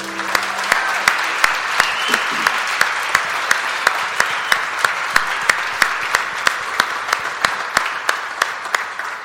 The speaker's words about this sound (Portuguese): Vamos aplaudir a Deus.